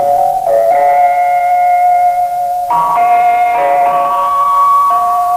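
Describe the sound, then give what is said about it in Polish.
The 1935 Polish Radio interval signal plays a short melody of about five loud, sustained, reedy tones that step between a few mid-high pitches, alone with no voices. “Proszę zobaczyć, jak to upolityczniono nie tylko zdejmuje się Zygmunta Hamca, wsadza nowego prezesa radia, ale nawet sygnał jest polityczny.”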